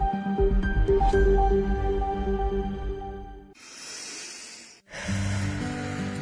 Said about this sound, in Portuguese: Como é bom ouvir um filho respirando tranquilamente.